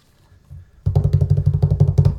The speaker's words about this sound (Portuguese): É, a vinheta é essa aqui, ó.